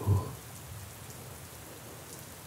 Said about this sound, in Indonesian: Hujan yang jatuh